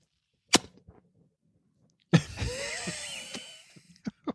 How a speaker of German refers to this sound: Gott, ist das peinlich. Wenn man das so hört. Warte, warte, Schmatz, Schmatz, ist das peinlich.